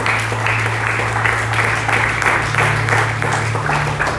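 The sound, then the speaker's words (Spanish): An audience at a Spanish-language Sunday morning church service applauds loudly, many hands clapping in a dense, steady roar that holds for about four seconds, with a low sustained tone humming underneath. “Amado, si le vas a aplaudir, el fuerte.”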